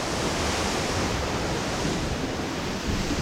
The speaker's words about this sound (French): C'est la seconde phase sonore de la vague, après une course de plusieurs kilomètres en silence ou presque, voici le grand fracas.